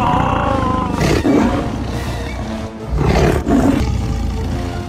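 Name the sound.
lion roaring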